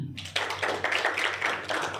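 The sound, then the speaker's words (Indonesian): A crowd bursts into applause, many hands clapping together in a dense, steady patter that starts suddenly and keeps going at a fairly loud level. “Yang Raja, Raja Wali tepuk tangan.”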